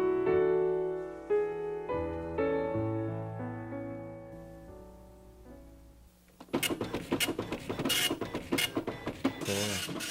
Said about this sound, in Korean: 이제 충격을 줘가지고 잉크를 이제 종이에다 찍는 옛날에는 어 이제 주로 이런 프린터를 이용을 했죠.